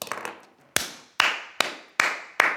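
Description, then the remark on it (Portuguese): A single person applauds themselves, clapping several times at an uneven pace, each sharp clap followed by a noticeable echoing decay. No speech. “E eu acho que aqui, meus amigos, vou ter que me aplaudir.”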